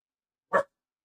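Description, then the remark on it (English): A single short, sharp puppy bark, loud, standing alone in otherwise silent surroundings. “My puppy is very loud today.”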